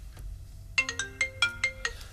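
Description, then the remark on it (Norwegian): A phone ringtone plays a quick melodic run of bright, plucked-sounding notes, about six rhythmic tones in a rising and falling pattern, clear over a faint low background hum. “Jeg liker jo alltid at du ringer meg”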